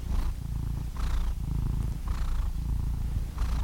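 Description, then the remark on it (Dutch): A sleeping cat purrs steadily, a low continuous rumble pulsing in slow breaths, roughly four cycles over a few seconds, with no voices present. “is Atlas. Atlas de kat.”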